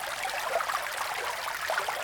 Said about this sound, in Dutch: Het wordt een stromend beekje. Het beekje volgt zijn weg en wordt een rivier. De rivier wordt breder en breder,